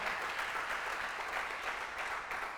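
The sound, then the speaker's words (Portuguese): Sustained applause for Jesus from an audience, a dense steady patter of many hands clapping at once with no pauses, holding at an even level throughout. “Você podia dar um aplauso a Jesus aí ou não?”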